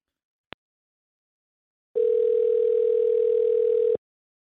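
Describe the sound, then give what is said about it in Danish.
A short click, then a steady telephone dial tone hums for about two seconds before cutting off abruptly, as a phone call is placed to Financial Times writer Simon Cooper; clear and fairly loud with no voices. “Så lad os prøve at få fat i Simon Cooper, som skulle sidde klar øh, i den anden ende af en telefonlinje.”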